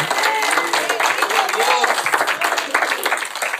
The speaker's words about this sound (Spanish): Dele un aplauso al rey, dele un aplauso al rey.